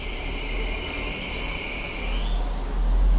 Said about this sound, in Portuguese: Opa, passou um carro bem barulhento agora.